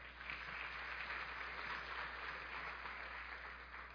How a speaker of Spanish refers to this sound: Démosle un fuerte aplauso a él.